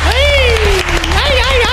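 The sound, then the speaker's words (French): An audience applauds in a dense, steady clatter of claps, with a long, high, wavering cheer from a voice riding over the clapping, all fairly loud throughout the brief burst. “C'était les grosses boules et je de vous demander de nous applaudir maintenant, chacun son tour. Bravo, bravo.”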